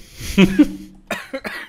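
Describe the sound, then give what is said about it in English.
A person coughs several times, a couple of harsh bursts followed by a few shorter, breathier coughs, with no talking. “Yeah keep keep coughing, dude. Keep coughing.”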